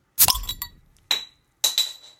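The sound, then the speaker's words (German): A glass bottle of alcohol-free lemonade is opened, a sharp pop followed by two bright clinks of glass ringing briefly, with no one talking. “Na, heute ist Mittag, da ist es mir zu früh für Bier, aber ich mache jetzt trotzdem mal ein alkoholfreies auf.”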